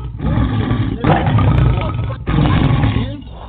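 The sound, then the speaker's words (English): A crowd of people at a preacher's call roaring together like lions for victory and healing, loud and sustained, in three long overlapping bursts with brief pauses between them. “Listen, roar for your victory. Roar for your healing.”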